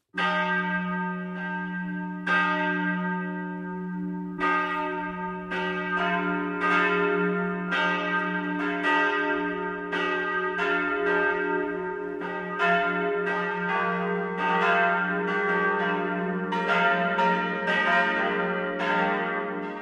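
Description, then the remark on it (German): Several church bells of the Catholic parish church St. Pankratius in Roding, Upper Palatinate, Germany, ring together in a full 12 o'clock midday peal, overlapping strikes in a steady, dense rhythm over a deep, sustained hum, loud and continuous throughout with no voices. “Das Mittagsläuten kommt heute von der katholischen Stadtpfarrkirche St. Pankratius in Roding in der Oberpfalz.”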